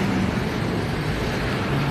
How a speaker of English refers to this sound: And here comes a, a milk truck